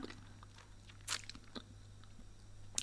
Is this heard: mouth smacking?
yes